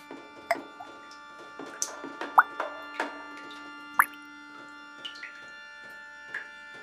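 Water drops dripping one at a time at an uneven, unhurried pace, each a short, bright plop with a ringing pitch, over a faint steady hum.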